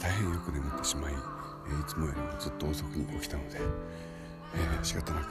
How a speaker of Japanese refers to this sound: 普通に歩いている朝の散歩をたいなもんですね、えー、今カラスの声が聞こえるでしょうか近所の学校の裏山っていうところに、えー、侵入しております